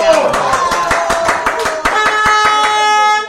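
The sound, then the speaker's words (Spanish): Steady, rhythmic applause for two people, quick sharp claps at an even pace, ringing out over a loud sustained horn-like tone that holds throughout before cutting off at the end. “Aplausos a ustedes dos.”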